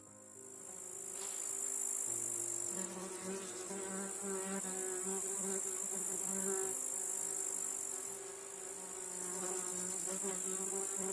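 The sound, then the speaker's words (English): A steady, dense chorus of buzzing and chirping insects fills a Ukrainian wheat field, a continuous high drone with bees or flies humming and no voices. “This is how the Ukrainian wheat field usually sounds.”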